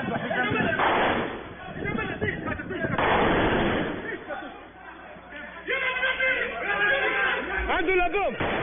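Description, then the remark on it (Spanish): Loud bursts of gunfire crack out in separate volleys, muffled, while people shout and cry out in agitated voices, growing more prominent toward the end; amateur video of the Islamic State shooting attack on tourists at the Hotel Riu in Tunisia. “Video aficionado registró impactantes momentos del tiroteo del EI en Túnez”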